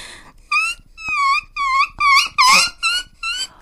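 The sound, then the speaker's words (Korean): A human voice mimics a dog whimpering in pain, a series of about six high, wavering whines with brief gaps between them, fairly loud, with no talking. “마지막으로 이제 강아지가 아픈 소리, 약간 어, 강아지 울음 소리 어, 아시죠?”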